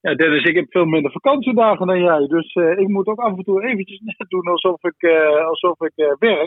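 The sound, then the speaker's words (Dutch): A man talks continuously through a thin, band-limited channel that sounds like a phone line, his voice narrow and boxy as though coming from far away, with a brief laugh partway through. “En ik ben aangekomen, maar je klinkt zo ver weg.”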